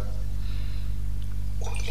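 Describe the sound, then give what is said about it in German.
Soda water is poured into wine in a wine glass to make a spritzer, a short splash and fizz that grows brighter toward the end, over a steady low electrical hum. “Ich habe auch gerade erstmal eigentlich pur eingeschenkt und wollte jetzt trotzdem auch mal spritzen”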